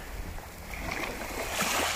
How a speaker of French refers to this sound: Vous écoutez la mer, les vagues. Vous écoutez le sang de la nature.